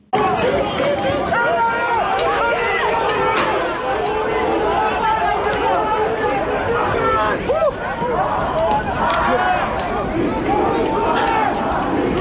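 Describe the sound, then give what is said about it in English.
A crowd of about 12,000 protesters gathered in front of the Parliament building in Greece fills the scene with a steady, loud roar of overlapping voices, scattered shouts rising out of the dense babble without a break. “About 12,000 people gathered in front of the Parliament building in Greece.”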